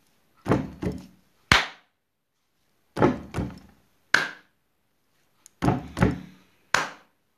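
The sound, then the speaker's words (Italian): Iceland football fans perform the geyser dance win celebration, clapping in unison in a slow, steady rhythm: three rounds, each of two heavy booming thuds followed by a sharp, loud clap, with silence between the hits and no talking. “Durante le partite, l'Islanda quando vinceva faceva questa piccola esultanza, la cosiddetta geyser dance. Ed era così.”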